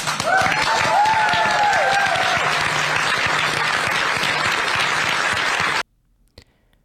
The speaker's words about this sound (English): Um, here was him signing this budget. So he's signing it right now for our podcast listeners, and they'll hear clapping.